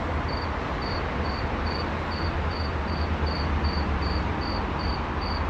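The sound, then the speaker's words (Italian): A single cricket chirps steadily in short, evenly spaced pulses over a constant low background hum with no one speaking. “No, no, è un grillo.”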